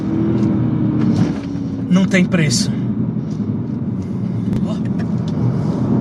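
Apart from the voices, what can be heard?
car engine revving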